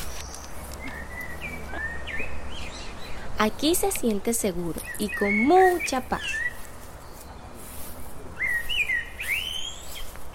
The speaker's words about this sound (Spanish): Para llegar donde la mayora se debe pasar por una naturaleza de árboles grandes y paisajes con muchos cantos de aves.